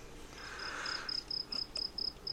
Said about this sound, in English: We still have the cricket noise. I think we still have that on, on, on file somewhere. We have to drop that in there.